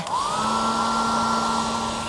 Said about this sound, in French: il se fit plaisir avec un sèche-cheveux volumisant pour avoir un style au poil.